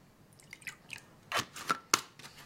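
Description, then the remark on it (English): Paper rustles and crinkles in a few quick, crisp bursts as a man reads his paper, growing louder toward the end, over a quiet, faint background hiss of a kettle boiling. “take some audio from one of the kettle boiling clips and place it under the video of John reading his paper”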